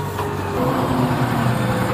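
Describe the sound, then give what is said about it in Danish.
A heavy diesel tractor engine rumbles steadily as it drives up to the field to start spraying, its low droning tone swelling slightly louder partway through as it revs up, with no voices present. “Og nu giver han da også gas.”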